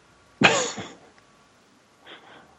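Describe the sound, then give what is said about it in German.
A single sharp, harsh cough bursts out, followed after a brief pause by a softer, rougher throat-clearing cough, from a person tasting whisky. “Ja, vielleicht ist es noch vom Husten.”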